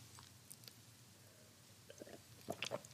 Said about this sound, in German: Ich trinke mal einen Schluck Wasser, dann wird's besser.